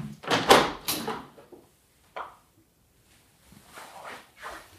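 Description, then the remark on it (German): A window is opened with a burst of rattling and scraping, a brief click a moment later, then a soft wash of outside noise drifting in. No one speaks. “Na, dann mache ich mal das Fenster auf, denn man wird es auch, glaube ich, hören.”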